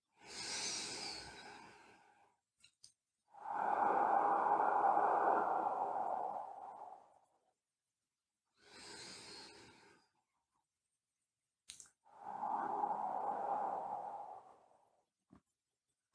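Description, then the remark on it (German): Slow, deliberate breaths as someone consciously breathes in and out with eyes closed during an exercise: two full cycles of airy inhales followed by longer, louder exhales, with brief pauses of silence between them and no talking. “Das heißt, du atmest ganz bewusst ein und aus so dass du dich selbst atmen hörst.”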